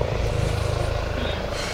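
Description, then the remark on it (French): A helicopter drones steadily overhead, its deep rotor thump pulsing in a fast rhythm beneath a broad engine rumble, loud and continuous throughout. “Attends, tu crois que c'est dans le spectacle, l'hélico, là C'est vrai, on dirait qu'il vient vers nous.”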